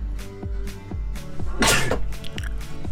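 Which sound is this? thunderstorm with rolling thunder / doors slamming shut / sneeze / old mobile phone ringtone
sneeze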